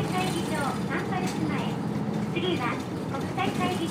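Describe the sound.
Steady, loud engine rumble inside a moving city bus in Hakata, a constant low drone filling the cabin while an onboard announcement in Japanese names the next stop, Hakata Rinko Police Station North Exit.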